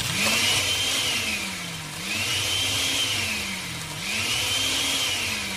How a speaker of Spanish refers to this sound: Pero tú, querido hermano, prende la licuadora.